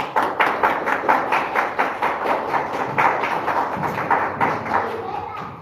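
A round of applause for a guest speaker being introduced at an event: many hands clapping in a dense, rapid patter that stays fairly loud for several seconds before thinning slightly at the end.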